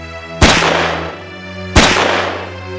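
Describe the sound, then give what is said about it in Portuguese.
Two loud pistol shots, fired at Admiral Darlan by Fernand Bounier de La Chapelle in an assassination attempt on the afternoon of 24 December 1942, ring out about a second and a half apart, each a sharp crack followed by a long reverberant decay over a low steady hum, with no voices. “Mas Darlan não teria uma vida longa na tarde do dia 24 de dezembro de 1942, Fernand Bounier de La Chapelle, defensor do retorno da monarquia francesa, atingiu Darlan com dois disparos de pistola em um atentado.”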